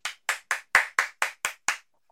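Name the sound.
hand clapping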